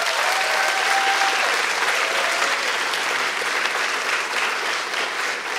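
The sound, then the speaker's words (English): A large audience claps steadily and loudly for the speakers at an event for several seconds, a dense, sustained wash of applause with no pauses, fading only slightly toward the end. “And could you please give our other speakers a huge round of applause as well?”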